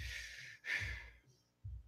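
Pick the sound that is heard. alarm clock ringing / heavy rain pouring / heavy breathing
heavy breathing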